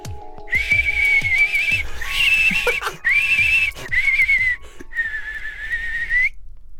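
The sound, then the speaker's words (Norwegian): A person whistles an attempt at the whistled language El Silbo, a series of loud, sliding whistled phrases in quick succession, rising and falling in pitch like whistled speech, with short gaps between them and no talking. “Eh, det var et forsøk på å si på språket El Silbo på å si i dag folkens, skal vi snakke om plysterspråket El Silbo”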